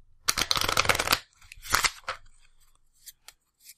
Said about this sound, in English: Now, I have a deck of cards here that I've been shuffling. And I'm going to start drawing cards one at a time.